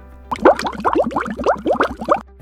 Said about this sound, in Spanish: Pero en distancias cortas, o mejor dicho, en arranques cortos, el pingüino emperador es capaz de duplicar o triplicar su velocidad. Esto gracias a que es capaz de liberar el aire en forma de burbujas que se encuentran entre su plumaje.